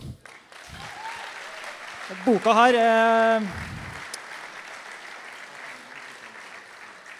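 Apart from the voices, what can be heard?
audience applause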